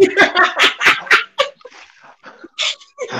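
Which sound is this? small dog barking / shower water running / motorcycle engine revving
small dog barking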